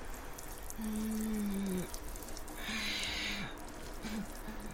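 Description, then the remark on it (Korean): A short, soft trickle of liquid hissing onto the ground, lasting under a second, from a woman crouched beside the main gate of the Far East Broadcasting station, urinating, while low droning tones swell and fade around it in an otherwise quiet setting. “주위는 고요했으며 정체가 분명한 작은 물소리가 나를 얼어붙게 했다.”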